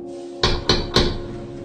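Three firm knocks on a wooden door, evenly spaced, each ringing briefly before the next, with a low steady hum underneath.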